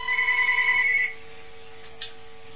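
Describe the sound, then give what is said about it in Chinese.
A telephone beside the hosts rings during a listener call-in show, a bright, high electronic trill lasting about a second, then cuts off, leaving a low steady hum with a faint click afterward. “哇，那个听众厉害了，边上那电话马上响了，这麻烦就是麻烦了，这个一接那个那边又响了”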